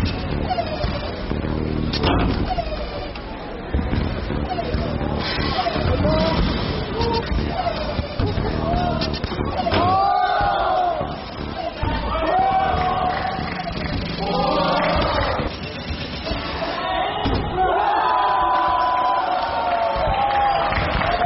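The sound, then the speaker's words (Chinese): Contestants on a basketball variety show scream and cheer excitedly in repeated high-pitched bursts after a player makes ten of ten shots, over a constant loud din of crowd noise, with occasional sharp thuds of the basketball game underneath. “最近更是参与某灌篮综艺节目，现场投篮十投十中，也是让选手们服气到尖叫。”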